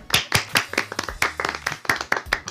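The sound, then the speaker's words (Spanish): A short burst of clapping: about a dozen sharp, crisp claps in an uneven rhythm, like a small group applauding, with a faint low hum underneath. “Aplausos, por favor.”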